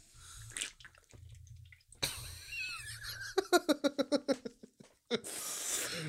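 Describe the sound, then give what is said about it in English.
A nearly empty can of yerba mate shaken quickly about eight times in a steady rhythm, a little liquid sloshing and rattling inside, fairly loud, with some handling noise before and after. “I finished my fucking can of yerba mate.”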